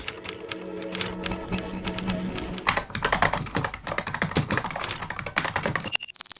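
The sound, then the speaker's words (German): Rapid, steady clatter of fingers typing on keys, dense, with a faint low hum underneath and a brief bright tone near the end. “Tippen, Tasten, Funken, Radio.”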